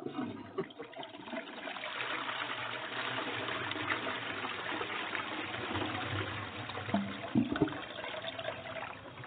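A toilet flushes with a loud, steady rush of water that churns for several seconds, with some gurgling bursts near the end. No one speaks.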